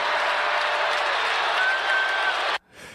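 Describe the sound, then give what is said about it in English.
A huge stadium crowd in Foxborough roars and applauds at the return of Tom Brady with the visiting Tampa Bay Buccaneers, a dense, sustained wall of noise with a faint rising whistle, then cuts off abruptly near the end. “The scene last night, Foxborough, with the return of Tom Brady.”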